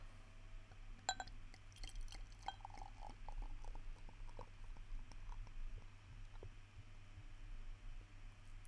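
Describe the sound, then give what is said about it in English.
A drink glugs out of a bottle as it is poured, in a burst of uneven gurgles, with a couple of glassy clinks near the start, quietly over a steady low hum, no one speaking. “For those wondering, it made a weird sound because it's in a bottle, not a can, like usual.”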